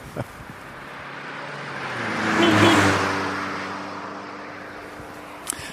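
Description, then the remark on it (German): A car engine hums steadily with low droning tones, swelling to a louder whooshing peak about halfway through before easing off again, like a vehicle passing by. No one speaks. “Aber dass ihr euch zu Hause fühlt, werden wir jetzt kurz ein Autogeräusch reinschneiden.”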